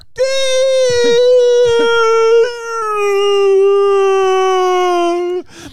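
A dog howls in two long, sustained tonal wails, the first briefly breaking before a second steady, slightly lower howl that holds for several seconds, loud.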